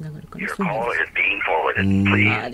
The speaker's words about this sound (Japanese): 衛星の電話の音